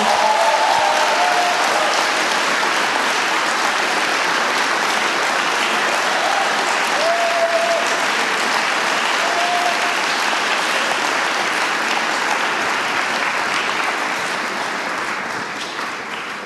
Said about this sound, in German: lass uns sie mit einem großen Applaus willkommen heißen.